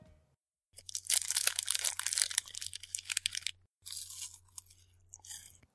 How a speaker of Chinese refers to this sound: 这是一个打开糖果包装的声音哦。